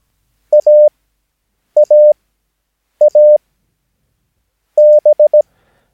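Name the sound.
morse code tones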